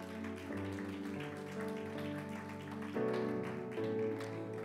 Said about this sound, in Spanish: Si le va ese aplauso, dáselo fuerte, por favor.